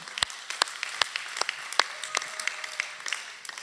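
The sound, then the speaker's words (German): A crowd applauds with irregular, overlapping claps, a few sharp loud ones standing out over a steady patter, lasting a few seconds. “Ja, den kann man einen Applaus geben.”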